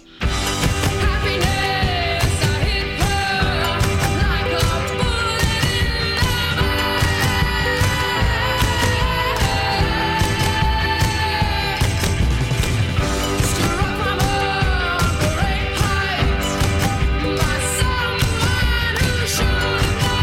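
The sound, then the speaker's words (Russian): An upbeat pop song from a Guardians of the Galaxy film, to which the adult Groot dances, plays loudly and continuously for the whole stretch, with a driving rhythm, layered instruments and sung melody, and no talking over it. “Мы начинали с песни, под которую плясал малыш Грут, а теперь послушаем ту, под которую он довольно зажигательно двигается уже во взрослом состоянии.”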